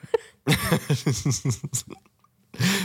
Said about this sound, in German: Ach, mein Husten ist jetzt wieder so ein bisschen durchs Reden, durchs viele Reden. Aber nicht so schlimm. So ganz leicht.